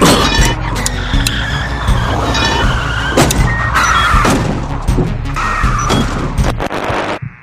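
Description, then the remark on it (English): A car roars and skids while repeated loud metallic crashes and thuds pile up as it drives through a wall of cars. Dense and chaotic, with no talking. “going through the wall of cars.”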